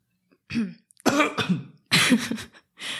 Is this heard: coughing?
yes